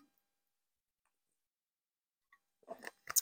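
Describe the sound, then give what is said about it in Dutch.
A long stretch of near silence, then a faint click and a few short, wet sipping and swallowing noises of a person taking a sip of water near the end, with no talking. “Even een slokje water.”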